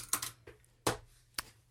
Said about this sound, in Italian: Questo era il rumore di io che lanciavo la penna perché abbiamo finito.